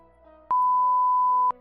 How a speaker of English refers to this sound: Oh, man, dude, the censor beep. I do not like.